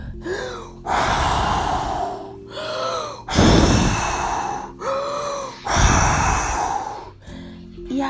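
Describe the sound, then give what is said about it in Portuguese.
A voice imitates the big bad wolf huffing and puffing at the little pig's house of sticks: three long, loud, breathy blowing bursts, each preceded by a sharp inhaled gasp, in a slow steady rhythm with no words. “Foi até a casa dele e assoprou e bufou.”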